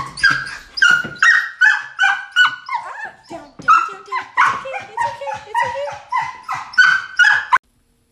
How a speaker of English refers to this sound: And right there, that was my dog. His name is Mac. He's a Dobie.